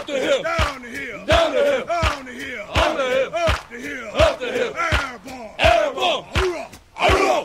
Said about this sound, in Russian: Это Running Cadence – специальные кричалки морской пехоты и десантуры США для тренировочных забегов на длинные дистанции.